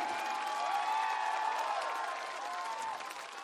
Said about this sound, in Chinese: 想借你们的掌声，送给我所有的 dancers，从香港特地飞过来的，谢谢。